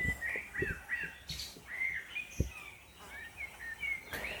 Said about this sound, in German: Das ist der Klang, das ist der Klang der Wälder vor Verdun.